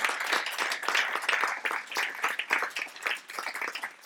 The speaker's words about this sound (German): Das ist unser Leitungsteam. Man darf klatschen.